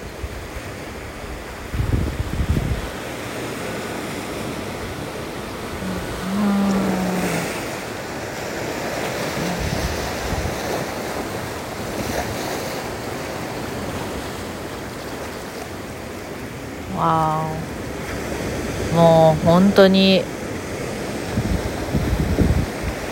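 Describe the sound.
Steady roar of ocean surf washing onto the shore at Napili, Maui, Hawaii, with waves swelling and breaking continuously; a few brief voices speak faintly over the rushing water.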